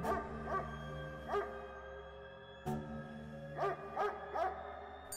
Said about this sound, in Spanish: Calla a su perro que seguía ladrando.